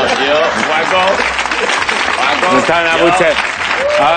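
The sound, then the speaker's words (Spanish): An audience applauds loudly and steadily, dense clapping filling the whole stretch, with voices calling out and talking over it. “ahora me aplaudís. Desagradecidos.”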